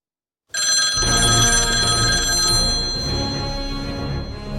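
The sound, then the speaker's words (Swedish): A telephone ringing tone sounds loud after a brief silence as a call is placed to a woman, continuing steadily to the end with no one speaking. “om vi, Testa. vi provar och ringer och ser.”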